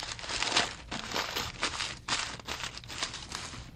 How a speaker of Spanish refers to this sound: Tenía las hojas de papel en blanco, pero le aburría verlas tan blancas, tan vacías, y las arrugó. Quedaron unas bolas de papel arrugado. A la niña le dieron lástima. Las tomó y las desarrugó.